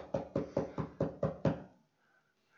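Six quick, evenly spaced, firm knocks on what sounds like a wooden door, followed by a short stretch of near silence.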